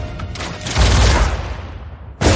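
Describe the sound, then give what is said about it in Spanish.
A dense volley of gunfire, shots aimed at a young woman who shields herself with an electric shield, crackles in a rapid burst, loud, with a booming low rumble that slowly decays before another sharp burst erupts at the end. “La joven llega levitando, se posa en el suelo y se protege de los disparos con un escudo eléctrico.”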